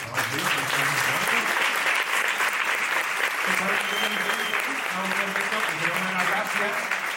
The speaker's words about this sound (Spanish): Así que pues, un aplauso.